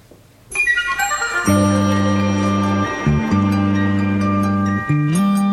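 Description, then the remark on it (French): The bright, upbeat instrumental opening theme of the Franco-Japanese animated TV series Oum le Dauphin Blanc, first broadcast in 1971 and 1972 on the ORTF's second channel, plays loudly, with chiming bell-like melody notes over sustained bass chords that shift a few times, no voices heard. “C'était le générique de la série d'animation franco-japonaise pour la télévision Oum le Dauphin Blanc, diffusée pour la première fois en 71 et 72 sur la deuxième chaîne de l'ORTF.”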